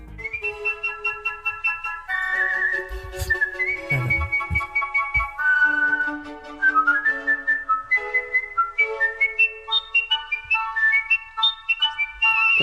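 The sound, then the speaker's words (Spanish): A professional whistler whistles a tuneful melody in a studio, clear and strong, moving between sustained held notes and quick ornamented runs, performed alone with no talking. “una cosa es silbar, como una cosa es cantar”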